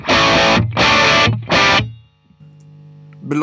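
An electric guitar through a distortion pedal with the gain turned down to about the eleven o'clock position plays three loud, crunchy strummed chords in a steady rhythm, then lets a quieter note ring before a final strum starts.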